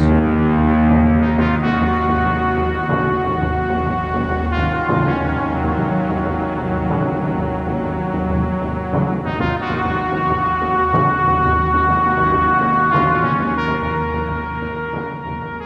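Dark, brooding synth music from the film Terminator, with heavy sustained chords and a low droning bass, punctuated by swelling hits every few seconds; loud and continuous, no voices, easing slightly at the end.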